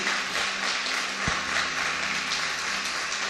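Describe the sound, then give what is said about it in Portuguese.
A church audience applauds Jesus in a steady, dense wash of many hands clapping together, continuous for the whole stretch with no voices heard, and one brief low thump partway through. “Aplauda Jesus se você crê nisso.”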